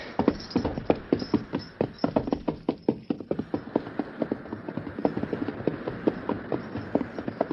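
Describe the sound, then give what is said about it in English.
Horse hooves clip-clop steadily in a quick, even rhythm as the horse Victor is ridden, each sharp knock clearly separated, continuing throughout with no voices. “Victor, they came from behind that low bluff think I'll ride down there and see what might have happened to all the others.”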